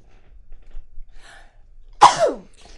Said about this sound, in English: I need to sneeze. That's that's not in the script.